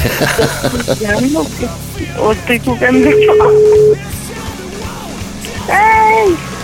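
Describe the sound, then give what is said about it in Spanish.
A phone call rings once with a steady, one-second electronic tone before being diverted to voicemail, heard over excited, overlapping voices talking and exclaiming. “Ya nos desvió la llamada, no manches.”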